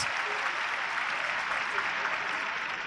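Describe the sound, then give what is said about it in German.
Steady applause from a large stadium crowd at an Eintracht football match as a player gets back on his feet, a dense wash of clapping that holds at an even level throughout, with no distinct voices standing out. “Aber geht wieder gut, steht wieder, deswegen auch der Applaus.”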